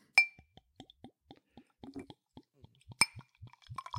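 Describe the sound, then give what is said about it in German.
A bottle of beer from a small brewery is opened with a sharp metallic clink, followed by a steady run of soft, low glugging plops as it pours, and a second bright clink partway through. “Also auf jeden Fall, ne, kleinere Brauereien kann man ja mal unterstützen und deswegen trinke ich jetzt hier ah, ein wunderschönes.”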